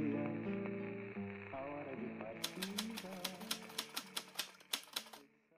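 Soft music plays alone at first, then a mechanical typewriter starts up as someone returns to it and keeps writing, a steady run of a dozen or so sharp, clacking key strikes over the fading melody.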